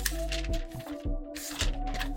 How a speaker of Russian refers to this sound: Су судорожно листаю, ли листаю свой блокнот с подводками. Сейчас, сейчас, секундочку, секундочку.